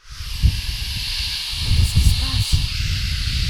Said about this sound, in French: Tout à coup, un grand bruit survient du ciel. C'est comme si un violent coup de vent s'abattait sur eux et remplissait toute la maison.